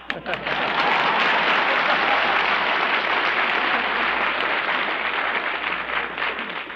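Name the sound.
audience applause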